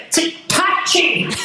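A rapid run of about four sneezes caused by hay fever, each a sharp, loud, hissy burst with a voiced catch, following one another at an even pace.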